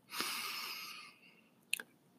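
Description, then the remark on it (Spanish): A long, deep breath consciously drawn in through the nose, an airy hiss lasting about a second, followed after a pause by a brief soft puff of breath. “Cuando tú de manera consciente le dices a tu cuerpo, aspira,”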